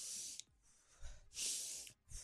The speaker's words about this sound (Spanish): Inhalar, exhalar. Pero por la nariz, chupa por la nariz y bota por la boca. Pero tenía la mascarilla.